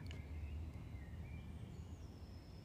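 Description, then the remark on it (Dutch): Faint birdsong drifts through a quiet outdoor setting, thin high whistles sliding up and down over a steady low rumble of wind or background noise. No one speaks. “Misschien is het nog wel fijn om gewoon even te luisteren naar de vogels, de vogels om je heen, de vogels die ik hier nu hoor.”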